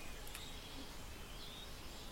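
Faint birdsong: a few thin, high chirps and short warbling phrases drift over a steady outdoor hiss, with no one speaking.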